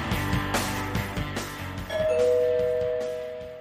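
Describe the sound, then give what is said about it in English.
A doorbell rings with a clear two-tone chime, the bright sustained tones ringing out over a busy background before slowly fading away. “Someone's at the door. Don't answer it.”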